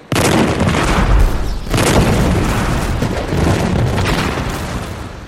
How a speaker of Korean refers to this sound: 조선의 수군은 외적선 가까이에 함선을 대어라! 쇠갈고리를 던져서 외놈들의 배가 도망치지 못하게 하라! 이제 총포를 발사하라!